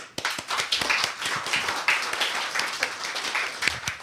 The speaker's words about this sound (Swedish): Så jag säger bara en varm applåd.